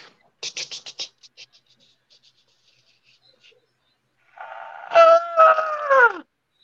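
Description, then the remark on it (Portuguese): A voice imitates a roller coaster: a quick run of clicking mouth sounds that slows and fades, then after a pause a loud, strained vocal wail that swoops downward in pitch. “Como que é o barulho da montanha russa?”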